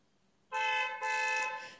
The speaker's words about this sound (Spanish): escuchó las bocinas de los coches que pasaban por la calle,